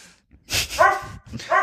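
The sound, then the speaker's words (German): A dog barks twice in quick succession, fairly loud, each bark sharp with a bright tonal ring, with brief quiet between them. “Der Hund!”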